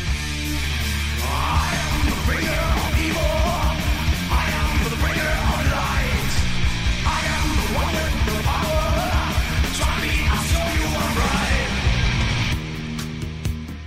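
Fast, dense Danish thrash metal from a band's debut album, with heavy distorted guitars, pounding drums and a harsh shouted vocal, loud and continuous throughout before thinning out in the final second.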